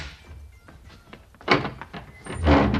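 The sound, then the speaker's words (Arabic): A newly moved-in neighbour knocks on a house door: a run of light, evenly spaced taps that build into heavier, louder thuds, with no voices. “وساعات يدقوا عليك باب الدار عشكون عشكون أنا جيت”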